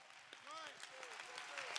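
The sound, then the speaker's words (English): A standing church audience claps their hands to give God praise, in a dense, steady patter of overlapping claps, with a few voices calling out over the applause. “No, I want you to stand your feet with me and let's clap our hands and give God some praise.”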